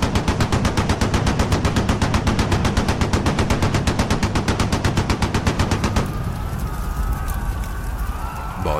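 Loud machine gun fire from a submarine's machine guns, shooting at three ships, rattles in a fast, steady stream of shots for about six seconds, then cuts off, leaving a lingering rumbling wash of noise.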